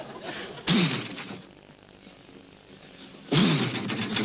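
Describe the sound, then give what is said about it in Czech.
A Harley-Davidson motorcycle engine gives two loud, sudden revs about two and a half seconds apart, each with a throaty pitch that dips and climbs. A low, steady idling rumble fills the gap between them. “Harley Davidson's.”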